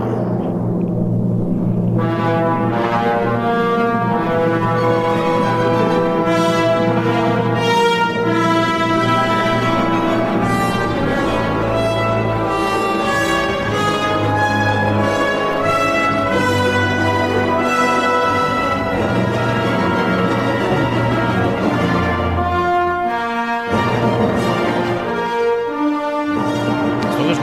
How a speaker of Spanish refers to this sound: escuchamos es el cuarto tiempo, el alegro, moderato, muerto, mm. risoluto del concierto para órgano y orquesta, el opus 55 de Horatio William Parker, Horatio Parker, compositor norteamericano